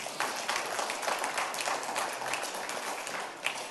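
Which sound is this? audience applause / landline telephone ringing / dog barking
audience applause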